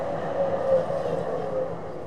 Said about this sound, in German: Flo steigt in die Straßenbahn.